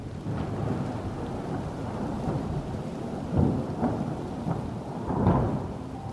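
A steady rush of rain fills the air while low thunder rumbles underneath, swelling into two heavier rolls partway through and near the end, with no voices.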